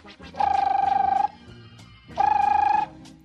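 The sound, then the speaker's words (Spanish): A telephone rings twice in a living room, each ring a rapid trilling electronic bell lasting about a second, separated by a short pause. The rings are clear, with no voices. “Y que suena el teléfono.”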